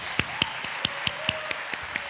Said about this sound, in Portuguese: Eu gostaria de saber quem está nos visitando hoje. Levanta a mão. Deixa eu ver. Sejam muito bem-vindas. Vamos aplaudir essas queridas.